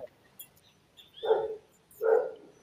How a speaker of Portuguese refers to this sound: Opa, quem, quem é que está latindo, hein? Quem é que está falando aí atrás? Que coisinha fofa é essa? É, na verdade, eu, tá eu vou ter que mutar, porque essa hora que o lixeiro passa e os cachorros ficam.